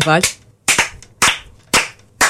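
Five loud, sharp claps ring out one by one at a slow, steady pace about half a second apart, each snapping crisply, with a brief vocal sound at the very start.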